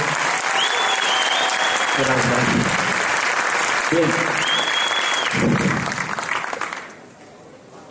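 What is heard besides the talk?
audience applause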